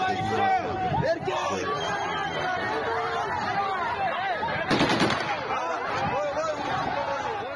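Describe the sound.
A crowd at a street protest against mobilization in Dagestan shouts and chatters loudly throughout, then a short, sharp burst of gunfire from an AK-variant rifle cracks out near the middle, rising briefly above the clamor of voices before the shouting carries on.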